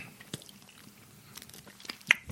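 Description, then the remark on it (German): Wet mouth sounds of someone eating ice cream, with irregular smacks and soft squishy chewing over a quiet background, a few sharper clicks standing out near the end. “Ich bin jetzt auch der Fan mit dem Eis, das ist nicht mehr ganz so eklig mit Schmatzen.”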